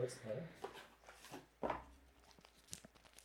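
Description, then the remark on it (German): A fruit tea bag packet crinkles in short bursts of crackling and rustling as the bag is taken out, with a louder tear-like crunch midway and soft murmuring voice sounds at the start. “Musst du den Beutel rausholen, so, so knistern leicht.”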